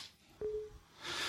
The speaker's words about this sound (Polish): słyszymy charakterystyczny dźwięk, to jest dźwięk kontroli konta użytkownika. W systemie Windows 7 musimy w tym momencie nacisnąć klawisze Alt-T, jak tak, aby zgodzić się na uruchomienie naszego instalatora.